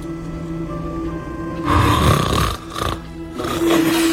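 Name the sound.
snoring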